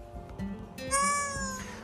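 A single drawn-out cat meow, fairly loud, rising in pitch midway and then trailing off, with a low background rumble underneath.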